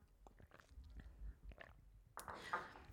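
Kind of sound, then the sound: food or drink, sipping water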